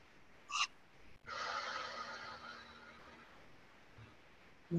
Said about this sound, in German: Zu Beginn möchte ich mit dir gemeinsam so also ein paar befreiende Atemzüge nehmen. Das machen wir am besten über die Nase ein und über den Mund aus, gern mit so einem Ton, mit einem Seufzer, um mal Anspannung abzugeben. Wir atmen ein